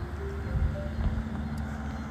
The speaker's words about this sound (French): Juste, il y a une voiture qui passe, je veux juste m'assurer que le chien est à l'abri.